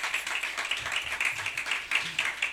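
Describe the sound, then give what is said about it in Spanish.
A crowd applauds steadily, many hands clapping in a dense, continuous patter at moderate loudness, with faint murmuring voices low in the mix. “Señores, señores, un enorme aplauso está aquí.”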